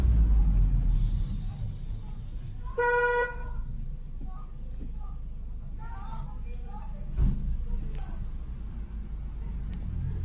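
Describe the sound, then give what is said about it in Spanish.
A car horn, sounded by a boyfriend, gives one loud, sustained honk lasting about half a second, standing out over steady low traffic rumble, with faint muffled voices and street noise around it. “Se nos hizo extraño que no cerrara de inmediato y mi novio se puso a accionar el claxon muchas veces.”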